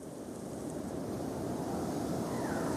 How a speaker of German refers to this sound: Der Sturm nimmt zu. Marco kniet am Boden, während der Wind den Sand um ihn aufpeitscht.